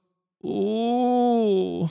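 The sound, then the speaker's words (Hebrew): A single held closed vowel sung in vocal fry for about a second and a half, steady in pitch, with a creaky, whimpering, crying quality to the voice, used as a singing technique to close off the air. “קצת חורק וקצת בוכה.”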